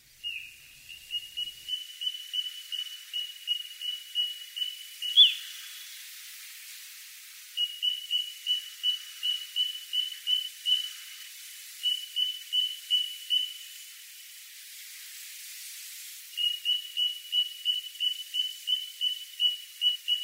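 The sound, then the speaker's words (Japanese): Little ringed plover calls: fast runs of short, high piping notes in several bursts separated by brief pauses, clear, over faint background hiss with no talking. “コチドリが千鳥足で歩くことを観察して酔っ払いの例えにした昔の人は鳥をよく見ていたことになります。”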